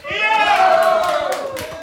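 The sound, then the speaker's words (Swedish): A live audience in the dining hall of Fountain House Stockholm cheers and claps during a broadcast, loud and sustained, with a prominent shouted cheer rising over scattered applause for a couple of seconds. “Vi sänder som brukligt från Fountain House Stockholms matsal och vi har självklart den underbara publiken som alltid är med oss. Får vi höra hur ni låter?”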